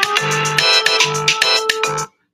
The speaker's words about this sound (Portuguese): O que, que você tá me ligando aqui no meu celular?